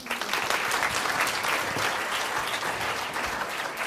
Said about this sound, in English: Everyone, give them a round of applause again.